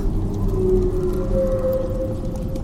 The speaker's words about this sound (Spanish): Suena el viento.